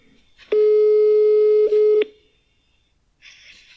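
A phone's ringback tone plays over a speakerphone: one loud, steady electronic beep lasting about a second and a half, then quiet, with a short burst of hissy noise near the end.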